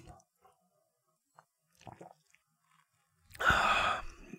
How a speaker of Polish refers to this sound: Łyczek wody.